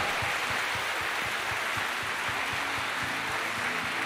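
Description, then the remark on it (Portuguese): A crowd at a morning gathering inside a building applauds loudly and steadily for several seconds, a dense wash of clapping with a regular, rhythmic pulse running underneath it. No one speaks. “Você pode aplaudir mais uma vez, mas com vontade, sabe?”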